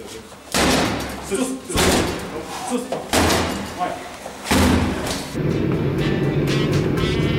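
door being smashed in

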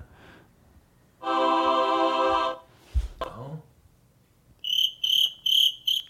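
cricket chirping sound effect

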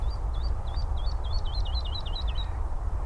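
woodlark singing

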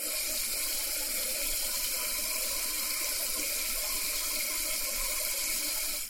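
water running

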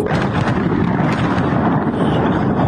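bombing explosions

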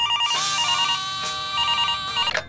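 telephone ringing

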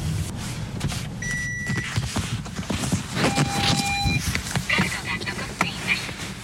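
car interior ambience

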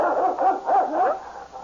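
dog growling and barking

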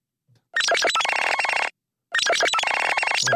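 smartphone ringtone

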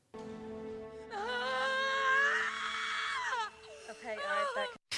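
woman screaming in labor

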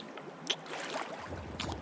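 water sloshing

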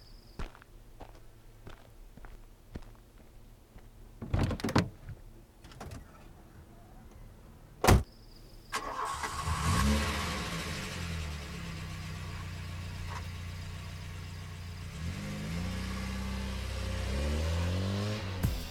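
car door closing

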